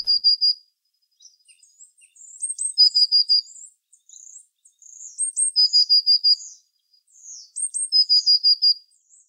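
A small bird sings a high, bright song in repeated phrases: quick runs of sharp chirping notes with whistled slurs, clear, with short pauses between bursts and no other sounds.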